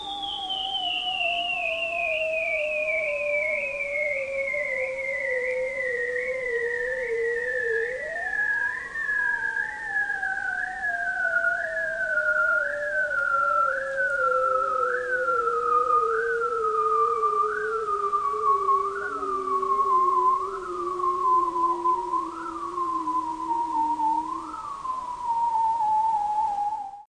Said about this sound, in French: Donc ils ont des chants euh, euh, lancinants très très long. Et quand euh, on est euh, dans un endroit où il y a des phoques barbus et qu'on plonge un hydrophone, eh bien, ils emplissent l'espace sonore.